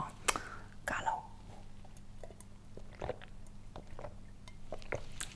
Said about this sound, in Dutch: Eh, vergeten mijn eh, koffiegeluiden uit te knippen.